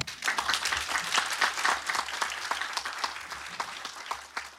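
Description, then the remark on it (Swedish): An audience breaks into sustained, warm applause for the host and guests of a talk, many hands clapping densely and steadily for several seconds. “Ska vi ge dem en varm applåd?”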